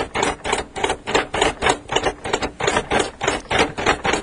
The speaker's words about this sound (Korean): 지금 점자 타자기로 쓰이는 글자는 반갑습니다다. 이 글자를 치는 분은 청주 맹학교에서 점역 일을 하는 분인데 라디오에 보낸 사연을 묶어서 책까지 펴냈다.